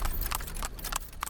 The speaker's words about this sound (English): That's the sound of a horse drawn cart bringing people onto land that's not theirs.